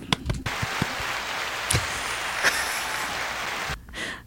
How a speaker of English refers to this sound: Applause button.